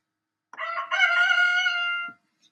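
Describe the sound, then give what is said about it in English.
A rooster crows once, a loud cock-a-doodle-doo lasting about a second and a half, rising then holding a strained, harmonic tone before cutting off into silence. “That strange creature that always annoys me in the mornings.”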